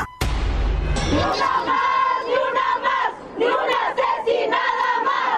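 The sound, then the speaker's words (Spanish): A large crowd of protesters, demonstrating against abuse committed by four police officers against a 17-year-old girl, shouts and chants in unison, a loud, sustained roar of voices with rising and falling cries, opening with a sharp low thump. “estamos manifestándonos en contra del abuso que eh, cuatro policías cometieron contra una joven de 17 años.”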